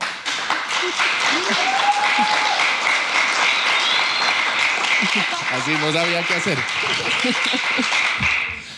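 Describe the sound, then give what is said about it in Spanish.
Loud, sustained audience applause at a live talk held at the host's home, welcoming the invited guests from Manifiesta, a dense wash of clapping with whoops and cheers rising over it and a few voices speaking and shouting through the crowd noise. “Fuerte el aplauso.”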